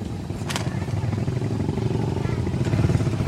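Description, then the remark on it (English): A Chinese four-stroke motorcycle with roll bars, wind fairings and mud flaps rumbles steadily as it goes by, its low growl holding even throughout, with a couple of brief sharp clatters cutting through. “motorcycles going by are all Chinese four-strokes with roll bars and wind fairings and mud flaps, fake snow leopard skin seats decorated with flying tassels and painted with eternal knots, swastikas, lotus blossoms, and flames.”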